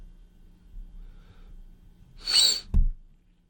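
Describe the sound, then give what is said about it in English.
A sharp, hissing intake of breath like the build-up to a sneeze, followed by a quick stifled snort or catch, fairly loud, with no talking. “oh, jeez. I thought I was going to sneeze.”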